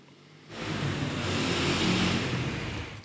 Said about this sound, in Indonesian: Kayak gitu misalnya ada motor lewat itu. Apakah itu bisa disebut musik? Enggak sih, itu bunyi.